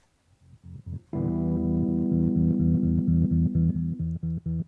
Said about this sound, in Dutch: De Honor Pianet waarschijnlijk. Dat is dit prachtige exemplaar. Dit was toen het allermodernste